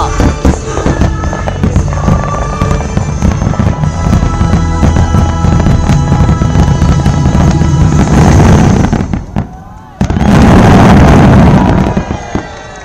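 New Year fireworks set to music boom and crackle continuously for several seconds, dense and loud, with a brief lull before another heavy burst of bangs and sizzling crackles fills the end.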